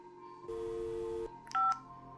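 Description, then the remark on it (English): Electronic phone tones signal a dropped call: a steady, sustained beep lasting nearly a second, then a brief, brighter beep moments later, clear with no voices. “But as he's trying to get her to do that, the phone cuts out.”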